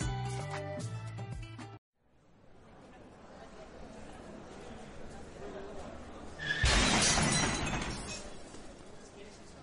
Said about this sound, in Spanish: Ha sufrido un accidente en su moto y se ha golpeado fuertemente su rostro.